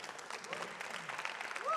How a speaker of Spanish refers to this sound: All right. Den un aplauso.